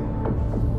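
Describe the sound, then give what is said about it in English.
A steady low rumble fills the space, dense and continuous with a slight throbbing pulse, like heavy machinery droning, with no voices over it. “So, is that rumbling just the airflow?”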